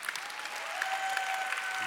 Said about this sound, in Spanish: Date un aplauso a ti mismo.